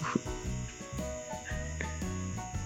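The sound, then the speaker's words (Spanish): A loudspeaker in a bedroom switches on by itself and buzzes, with a steady high-pitched electronic whine over choppy, stepped low tones and a louder crackle at the very end. No one speaks. “Sí, bueno, una bocina que está aquí en mi cuarto está prendida ahorita, se prendió de la nada.”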